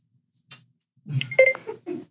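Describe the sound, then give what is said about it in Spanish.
A quick rattle, then a short cluster of steady electronic dialing beeps from a phone call that nobody answers, mixed with muffled handling noise, fairly quiet. “No, hombre, nadie nos quiere contestar.”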